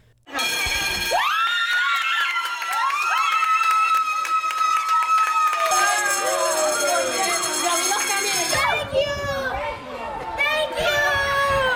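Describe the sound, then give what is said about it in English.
A crowd of children in Puerto Rico cheers and shouts loudly and continuously at a school bell signaling the end of the ordeal after Hurricane Maria, with a steady ringing bell tone underneath for most of the time, the excited yelling swelling again near the end. “That's a cheer for a school bell that signals the end of an ordeal.”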